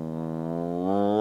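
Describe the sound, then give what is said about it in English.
A man imitates a foghorn with one long, low, steady droning hum that swells slightly louder toward the end, held for over a second with no other talking. “now he's just a foghorn.”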